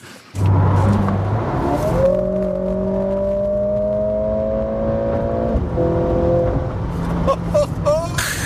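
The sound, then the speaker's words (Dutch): The engine of a Mercedes-AMG CLA 45 S four-door coupé drones and climbs in pitch, revving steadily for a few seconds, easing off, then pulling again. It is loud, with brief muffled talk at the edges. “Mercedes AMG, dat AMG moet tegenwoordig ervoor. CLA 45 coupé, maar wel met vier deuren.”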